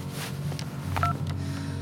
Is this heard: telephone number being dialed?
yes